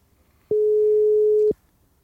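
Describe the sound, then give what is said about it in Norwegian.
A single steady telephone ringing tone sounds for about one second, clear, like the ringback heard while a call connects, with near silence before and after. “Dette er Tre ganger Hjeltnes som eh, ja. ringer deg etter et tips”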